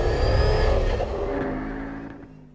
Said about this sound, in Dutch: It's got a 2.5 liter engine borrowed from Audi that's got 380 brake horsepower. This car takes 2.8 seconds to get from a standstill to 62. That is quick.